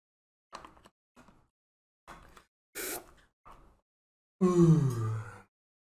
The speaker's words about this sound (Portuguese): Eu tô meio ofegante. Dá uma respirada, bebe uma água. Calma aí, calma aí.